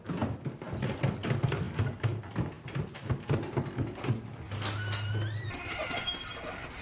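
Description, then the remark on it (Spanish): A metal shop rolling shutter rattles and clatters steadily as Leonor pulls it all the way down, ending in a drawn-out screech and a sustained metallic ring, with no voices. “Leonor baja del todo la persiana de la tienda.”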